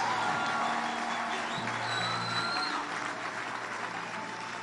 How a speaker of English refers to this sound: You can clap hands for Jesus Christ.